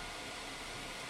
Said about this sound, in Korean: 네, 선풍기 튼 거예요.